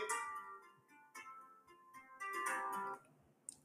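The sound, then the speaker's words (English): An electronic text message notification chimes through a Tesla car in a short melodic tone sequence, several bright notes in a row, then stops. The sound is fairly faint, with no talking. “My fucking text messages are still coming over on my Tesla, but I'm not complaining because this thing fucking rots.”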